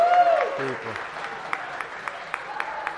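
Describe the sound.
An audience breaks into applause, a dense, steady patter of many hands clapping at moderate loudness, with a voice speaking briefly over the opening moments.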